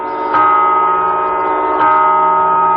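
Two loud strikes of a clock tower bell ring out about a second and a half apart, each leaving a long, resonant hum that carries into the next: the rapid New Year's Eve chimes that rang in 1997 in Spain, from a restored clock that had been sped up. No one speaks.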